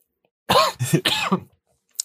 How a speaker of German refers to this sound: trockener Husten wieder.